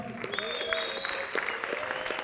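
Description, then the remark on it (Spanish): An audience claps steadily as Elizabeth Stark and Anita Posh appear on stage, a dense, continuous wash of many hands with scattered sharper claps, holding an even loudness throughout. “Entonces, otro gran saludo y aplauso para Elizabeth y para Anita Posh.”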